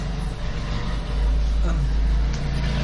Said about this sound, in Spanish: Autobús, bus, bus.